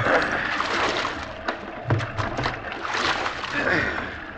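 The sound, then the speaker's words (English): Oars dip and pull through water, with rhythmic splashes and sloshing as shipwrecked men row a small boat at sea, steady over a constant wash of water. “Take the right oar, Billy. All right. Let's go.”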